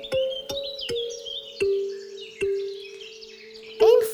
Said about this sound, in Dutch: Wat kan dat vogeltje mooi zingen, werd gezegd. Zij is precies wat wij hier nodig hebben. Zij heeft precies dat frisse geluid dat we willen horen.